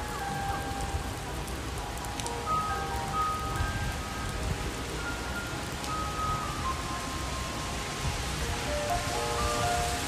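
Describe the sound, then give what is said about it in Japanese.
Steady rain falls throughout in Aomori, a dense continuous hiss of drops pattering on surfaces, with faint tonal sounds drifting in the background and no voices. “雨がちょっと降ってたんで雨音がすごい入ってますけどそっちじゃない方です”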